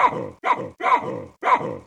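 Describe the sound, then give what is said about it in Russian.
Four loud, harsh barking calls from a Guinea baboon, each a short rough burst separated by brief pauses in a quick, uneven rhythm. “Ну, э, вот на самом деле это мы слышали речь гвинейского павиана.”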